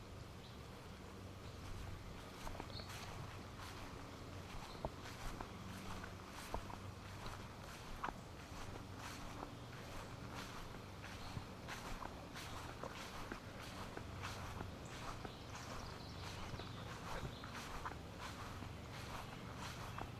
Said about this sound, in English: back to walking around the, on the grass in my backyard.